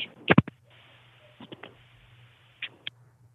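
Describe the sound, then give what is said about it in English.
A phone is dropped during a call, making a cluster of sharp knocks and clatters, followed by a few scattered bumps and clicks of handling over a faint steady hum, with no talking. “I dropped the phone. Did you hear that?”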